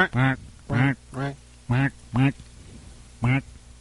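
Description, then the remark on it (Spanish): A person imitates a duck with six nasal, voiced quacks in an uneven rhythm, each short and fairly loud, with no other talking. “Y el pato le dijo.”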